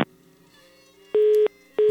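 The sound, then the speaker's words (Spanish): A telephone busy tone after a caller's phone call drops: steady beeps pulse on and off at an even rhythm, clear and fairly loud, following a quiet hum with no voices. “Bueno, se cortó la comunicación.”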